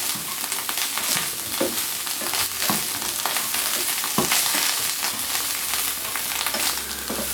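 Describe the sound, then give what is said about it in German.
Button mushrooms frying in a pan with a steady, dense sizzle and crackle, broken by a few sharper pops and spatters. No one speaks. “wollt euch jetzt nicht die ganze Zeit warten lassen, bis die Champignons vielleicht anfangen anzubräunen.”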